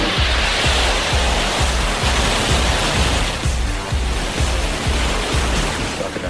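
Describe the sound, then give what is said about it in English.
Rocket engines roar at launch: a loud, steady, full-bodied rush of noise with a rumbling, crackling low end that pulses roughly twice a second, continuing unbroken with no voices. “four, three, two, one, zero. Ignition, lift off.”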